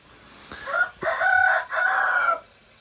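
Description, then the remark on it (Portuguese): A rooster crows in a drawn-out, multi-part call, strained harmonics rising and holding across three linked segments, fairly loud, with no talking over it. “As galinhas estão aqui acordando o mundo”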